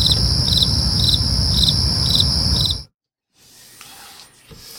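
Crickets chirp steadily in a loud chorus, with regular pulsing trills over a low rumble, then cut off abruptly into silence before faint background noise returns.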